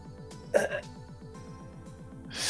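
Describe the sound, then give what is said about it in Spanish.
Soft breathing: a few airy breaths and one sharper, catching intake, with a faint steady low rhythmic hum underneath and no talking. “sigo escuchando respiración.”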